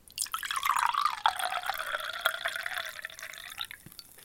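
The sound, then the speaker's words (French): Kefir from a freshly opened, pressurized bottle pours steadily into a glass in a kitchen for about four seconds, a continuous gurgling splash whose pitch climbs gradually as the glass fills, with a few louder plops along the way. “Je vais verser mon kéfir. J'aime bien le son, donc je vais t'en faire profiter.”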